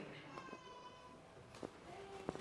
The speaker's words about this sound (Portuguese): Oxe, oh, eu, senti o, o chorinho da minha neta.